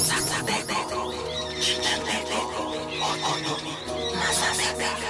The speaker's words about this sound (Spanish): Amo el canto del cenzontle, Pájaro de 400 voces.